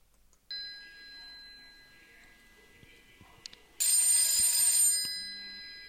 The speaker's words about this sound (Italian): Ma all'improvviso, in una orrenda portineria di Corso Vittorio Emanuele, squilla un telefono bigrigio e quel telefono porta la voce di Jorge Mario Bergoglio.